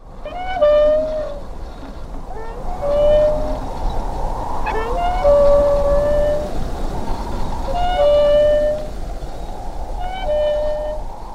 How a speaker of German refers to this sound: das vielleicht berühmteste Geräusch der Kinogeschichte, zur definitiv berühmtesten Warteszene. Ein quietschendes Windrad über einem kleinen Bahnhof im Nirgendwo des amerikanischen Südwestens